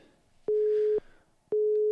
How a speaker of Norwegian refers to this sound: Der ringer det. Så får vi se om vi får noe svar. Det ringer i hvert fall.